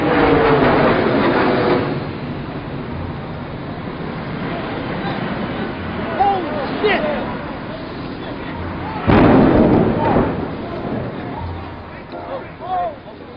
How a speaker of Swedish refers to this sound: Det är en klar septembermorgon, runt kvart i nio på morgonen, när plötsligt ljudet av flygmotorer snabbt ökar i volym.